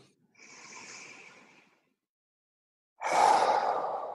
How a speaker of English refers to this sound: and actually on this third complete breath i am more forceful about it because i'm breathing in strength and i'm breathing out gratefulness for the strength